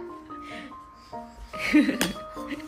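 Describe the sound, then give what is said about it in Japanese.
Glasses clink together in a kanpai toast several times, each tap leaving a clear, sustained ringing tone, with a brief burst of muffled bustle and a sharper clink near the end. “はいはいありがとうございますはい乾杯”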